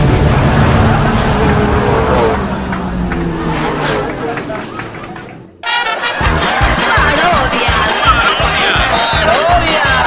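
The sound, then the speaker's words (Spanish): Loud car engines roar and whine as fast cars race past, with a brief drop-out midway before the dense engine noise resumes. Voices murmur underneath throughout. “Con autos tan rápidos, pero tan vergonzosos políticos.”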